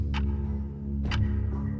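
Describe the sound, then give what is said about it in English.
A clock ticks twice, two crisp clicks about a second apart, standing out clearly over a steady low droning hum. “My heart was swinging like a metronome in my chest, keeping time where the ticking of the clock had fallen away.”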